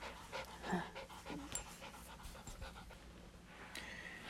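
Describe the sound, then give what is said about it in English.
A female dog named Autumn pants in quick, rhythmic breathy bursts, steady and fairly quiet, with no talking over it. “What's our dog's name?”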